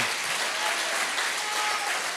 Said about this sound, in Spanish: Yo pienso que Él se merece un aplauso mucho más fuerte.